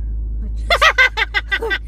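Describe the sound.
A steady, low vehicle rumble fills the interior of a car where people are recording, and after a brief moment a person starts speaking over the constant droning hum.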